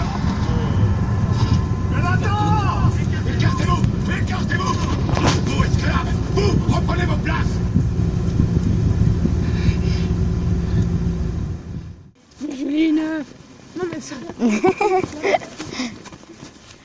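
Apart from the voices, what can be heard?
inside a moving bus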